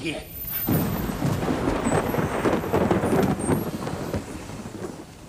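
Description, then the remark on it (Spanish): After a brief quiet moment, a steady wash of rain starts up and continues, dense and hissing, with a low rumble underneath, constant throughout. “Ha comenzado a llover.”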